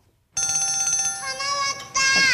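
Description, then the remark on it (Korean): A telephone rings in a December 2007 Gag Concert sketch from the segment "대화가 필요해", a bright, buzzing electronic trill that starts abruptly, holds steady, then warbles and shifts pitch before a louder burst at the end, clear. “동민 전화 왔네.”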